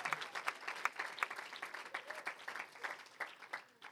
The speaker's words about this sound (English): Let's get up, give all of our students a great big hand tonight as well.